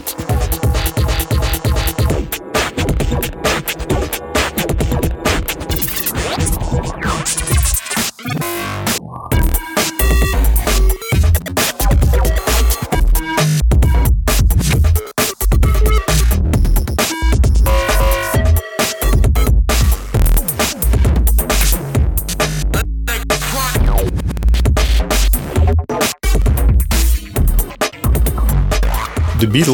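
Dense, loud experimental electronic music full of abrupt cuts and jarring splices, with harsh bleeping tones, heavy low thumps and sudden dropouts chopping the sound throughout, no voices.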